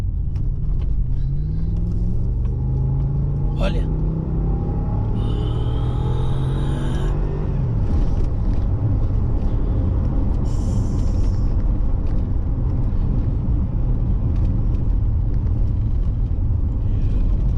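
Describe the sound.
An armored Range Rover SUV engine drones steadily while driving, its pitch climbing and falling through gear shifts early on, then settling into a loud, continuous low rumble with road noise. A voice briefly speaks.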